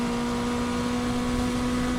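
A Porsche RP968 race car engine holds a steady, droning pitch at constant loudness for two seconds during a record-breaking lap, a continuous mechanical hum with rushing noise around it and no voices.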